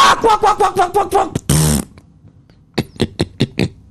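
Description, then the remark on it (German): A voice imitates a crocodile: a quick run of throaty, rattling grunts, a loud raspy hiss, a brief silence, then another rapid burst of guttural pulses. “Macht das Krokodil.”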